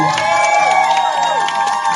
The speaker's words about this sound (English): So thank you guys so much for joining us tonight. A round of applause for … rocking it tonight, man.